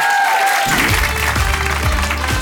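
Loud audience applause bursts in after a brief quiet moment, a dense wash of clapping hands that stays steady and sustained to the end.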